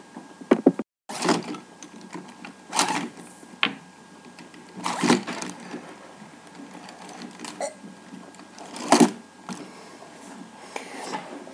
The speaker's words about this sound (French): Voilà l'outil indispensable à tout élève, la trousse.